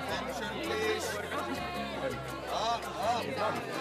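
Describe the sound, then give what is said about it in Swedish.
A room full of adults at a reunion party, drinking red wine and beer, mingling and chatting in small groups, overlapping voices forming a steady, moderately loud murmur with occasional clearer voices rising above the babble. “som dricker rödvin och öl, minglar, pratar. Det är lite stelt ännu. Man står i små klungor.”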